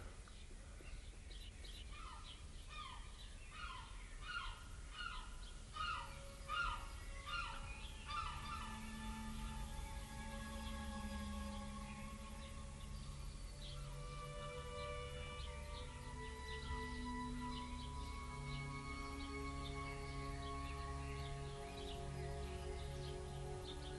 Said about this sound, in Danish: Øh, det er noget dejligt med lidt fuglefløjt.